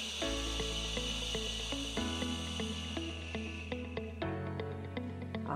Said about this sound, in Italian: prendiamo aria con il naso gonfiamo il palloncino nella pancia e adesso che buttiamo fuori l'aria facciamo shh. Ancora una volta, dentro l'aria, spalle rilassate, occhi chiusi, gonfiamo l'addome, fuori l'aria, shh, shh.